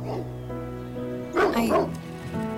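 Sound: dogs barking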